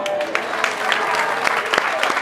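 A burst of applause from a small crowd, dense and steady clapping throughout with a few sharper claps standing out, and faint voices mixed in underneath.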